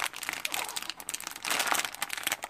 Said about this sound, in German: Nun öffne ich die Tüte der Haselnüsse.